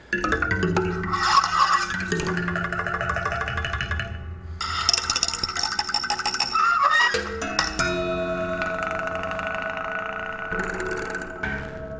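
A homemade instrument built from door stops and combs mounted on it plays for about twelve seconds, giving off buzzy, twangy, honking tones in continuous phrases with a couple of brief breaks, fairly loud, no talking.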